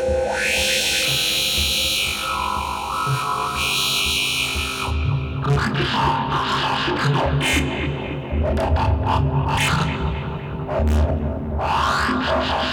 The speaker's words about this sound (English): And then there's an interruption by this very loud and squelched sound from the 291E filter with the resonance turned pretty far up.